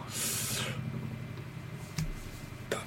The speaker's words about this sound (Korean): 어, 지금은 이제 헬리콥터 소리가 나네요. 어, 헬리콥터 소리가 나. 별게 다 네. 들어오네요.